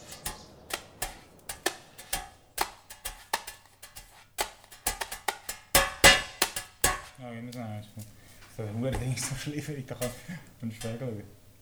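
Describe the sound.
Sharp metallic taps and clanks from kitchen spoons, pans and other kitchen utensils, played as percussion in a brisk, uneven rhythm; after several seconds a voice joins over the percussion.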